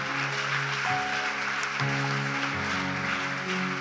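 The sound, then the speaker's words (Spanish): A large church audience claps steadily and loudly for God, a dense wash of applause, with sustained keyboard chords playing underneath throughout. “Dale un fuerte aplauso a Dios por este corazón.”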